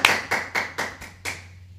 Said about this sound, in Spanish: Un fuerte aplauso a todos las naciones.